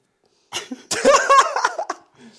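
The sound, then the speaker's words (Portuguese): A loud sneeze: a quick breathy intake, then a sharp explosive burst that trails into brief voiced, laugh-like sounds before fading out. “que começa a espirrar a partir das 7 da tarde.”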